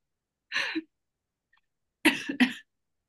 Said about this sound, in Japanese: なんか何かの感染症にかかって。なので、ちょっと今日あんま声が出ないかもしれない。っていう。あ、そうだったんだ。ダメだ。話すと咳出る。